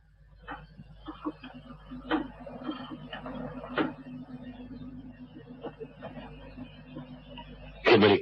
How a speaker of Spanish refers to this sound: colocó una moneda y lentamente marcó el número deseado.